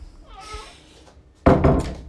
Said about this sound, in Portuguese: Olha o gato querendo entrar, gente. Vem, gato.